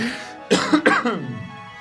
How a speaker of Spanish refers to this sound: Estás tosiendo demasiado en este programa. Me estoy asustando.